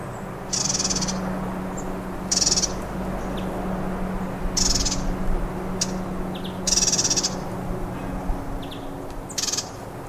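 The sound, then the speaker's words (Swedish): A bird repeatedly gives short, raspy, hissing bursts of song, about six in ten seconds at uneven intervals, high-pitched and fairly loud over a steady low hum. “Alexander Hellqvist har en, en sån inspelning från Gotland som jag tycker är ett bra exempel på en, en sån här fågel som snarare ska tolkas som ett, ett vad ska jag säga, en serie av ärtsångarsmattor som blir ganska likt det här, men, men ändå inte.”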